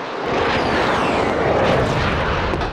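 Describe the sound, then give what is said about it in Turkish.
An armed drone's engine drones loudly overhead, supporting commandos in Haftanin, northern Iraq, during a military operation: a steady, dense roar with a thin whine sliding in pitch across it, continuous for the whole moment with no voices. “Komandoların en büyük destekçisi silahlı insansız hava araçları.”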